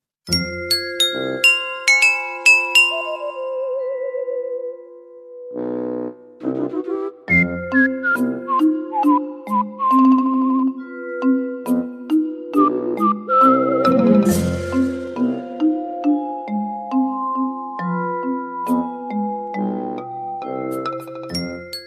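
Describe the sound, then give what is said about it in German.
Bright, bell-like background music from the Soda Jungle level of Super Mario Bros. U on the Wii U, a level styled after Van Gogh, with chiming, tinkling melodic notes and bouncy rhythmic phrases, playing steadily without any talking over it. “So klingt es, durch den Van Gogh Limonadendschungel zu flanieren.”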